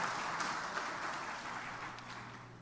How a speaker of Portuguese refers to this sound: Quem pode aplaudir o Senhor Jesus? Amém. Glória a Deus.